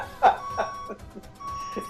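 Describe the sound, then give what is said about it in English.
A series of electronic beeps from a truck pulling up repeats at a steady pace, the first one loudest and the rest softer, with a faint sustained tone and some background noise behind them. “Oh, hear that beep? Yeah, beep.”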